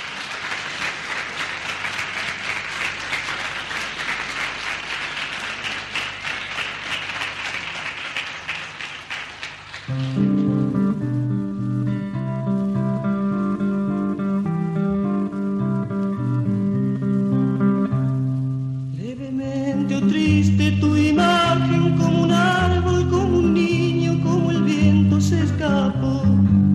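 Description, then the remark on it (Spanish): A crowd claps and cheers for about ten seconds, then a live band launches into a song with full instruments, the audience noise fading as the music takes over. It is a live version included on an album, released in the early 1970s. “Hay una versión de ese vivo que fue incluida en el disco ….”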